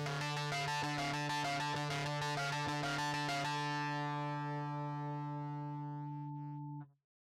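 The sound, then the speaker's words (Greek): A mobile phone's electronic ringtone melody plays alone, heard from a distance, with quick pulsing notes for a few seconds before settling into a steady held tone that cuts off abruptly near the end. “Για καλή μας τύχη, εκείνη τη στιγμή ακούστηκε από το βάθος η ίδια απέσια μουσική.”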